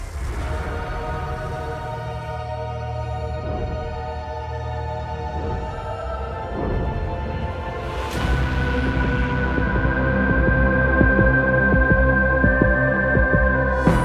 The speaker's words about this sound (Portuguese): Ah, quem quer ouvir o meu disquinho ao contrário?